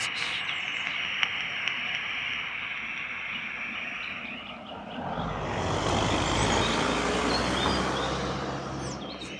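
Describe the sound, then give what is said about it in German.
Steady street traffic hums throughout, then a car swells in with a deep rumbling whoosh as it drives past, leaving a broad roar of road noise; no one speaks. “Oh, wir stehen auf der Straße und hier fahren wirklich Autos.”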